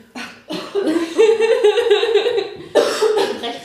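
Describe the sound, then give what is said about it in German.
A person coughs several times into the crook of their arm, the coughs muffled, in a rough burst lasting a few seconds with no talking. “Aber die Armbeuge gehustet.”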